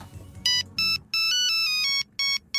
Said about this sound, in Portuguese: Uh, para terminar, e porque sei que gostam, vamos escutar mais alguns clássicos toques do Nokia 3310.